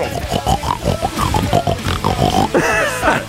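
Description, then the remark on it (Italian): A real pig grunts and oinks repeatedly, a busy run of snorting, nasal calls ending in a higher, drawn-out squeal-like oink. No one speaks. “Vabbè, ma era, era, insieme a dei maiali veri?”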